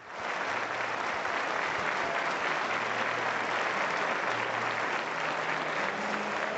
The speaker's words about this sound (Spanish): Y es una ovación más que merecida